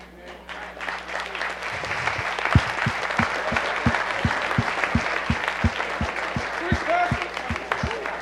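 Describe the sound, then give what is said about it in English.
A room full of people applauding steadily, dense, with a regular low thumping beat starting a couple of seconds in and continuing beneath the clapping, plus faint voices. “Somebody barely clapping because they don't want to stay married.”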